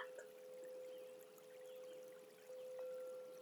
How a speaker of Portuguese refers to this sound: Você vem agora, se aproxima desta água deste pequeno riacho rasinho, você senta, sentindo a água tocar o seu corpo, suas mãos. E ela vai fluindo, levando